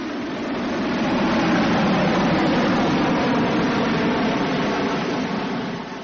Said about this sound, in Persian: حالا مسابقه آغاز میشه هواپیمای من همون اول از دو تا هواپیما پیشی میگیره سر پیچ چه میکنه هواپیمای منو چه سوینگی انجام میده هرچند که بقیه هواپیما هم خوبن ولی هواپیمای من به دلیل زرید درگ پایین ساختار آیرودینامیکی مناسب از همه داره جلو میزنه